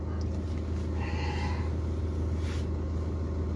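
One drawn-out, voiced human yawn rises briefly over the steady, heavy rumble of a moving vehicle's engine.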